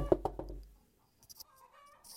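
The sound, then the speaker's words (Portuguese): A chicken clucks in the background in a quick run of three short calls, then goes quiet before a few fainter, scattered sounds follow. The clucking is soft, with no talking. “A gente vai ter que aceitar a realidade da galinha cantando no fundo.”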